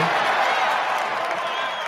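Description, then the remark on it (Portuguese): A dense, steady wash of audience clapping mixed with cheering holds at an even, loud level for about two seconds, without a break and with no voices standing out. “Acho que merece uma salva de palmas aí.”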